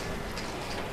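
A sewing machine runs steadily at the central library in Helsinki, Finland, a dense mechanical whir with a fast, even ticking rhythm throughout, with a 3D printer in the background; no voices present.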